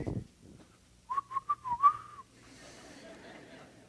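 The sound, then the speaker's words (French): A person who cannot whistle makes a wobbly, breathy attempt at whistling: a thin, wavering tone that sputters in several short puffs for about a second, then gives out, followed by faint background noise. “Là, vous avez vu, hein, je n'ai pas sifflé parce que je ne suis pas capable de siffler.”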